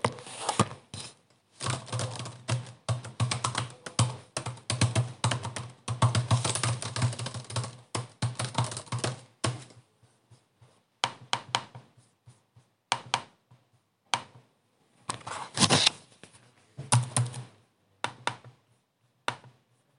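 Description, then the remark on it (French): Typing on a computer keyboard during a lockdown: a dense burst of rapid key clicks for several seconds, then slower, scattered keystrokes and short flurries with pauses between them. No voices. “Je suis derrière mon clavier une bonne partie de la journée, comme pour le deuxième confinement, comme pour le premier.”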